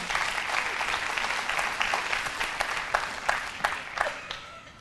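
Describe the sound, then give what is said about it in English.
An audience at a morning church service claps for people as they are being seated, a steady, dense patter of many hands, sustained and fairly loud, thinning toward the end into scattered individual claps. “Y'all give them a hand clap this morning as they're being seated.”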